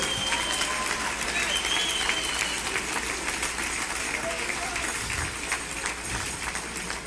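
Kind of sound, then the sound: crowd, audience applauding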